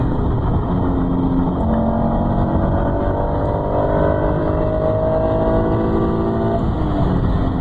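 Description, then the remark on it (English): A sports car engine revs hard through the gears, its deep, guttural intake snarl climbing steadily in pitch with brief dips at each shift, loud and continuous with no talking. “It's just has a killer intake note, and it's yeah, it's like a snarl, fucking guttural sound.”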